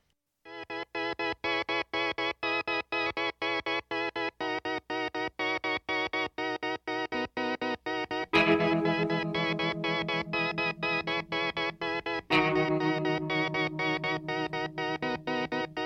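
A song by a band with Mexican-American influence plays: a choppy, rhythmic effects-laden guitar figure repeats steadily, then a fuller, louder section with heavier bass kicks in about halfway, surging again a few seconds later. No singing yet.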